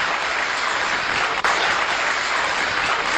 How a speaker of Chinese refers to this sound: 各位不要着急鼓掌，因为这个东西不好笑，下面的话对你有用。